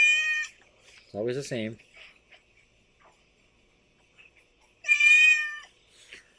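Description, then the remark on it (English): A pet cat meows several times in a played-back video, in high, drawn-out calls with pauses between them, loud, while a person briefly speaks in the gap. “Just listen, listen to every meow.”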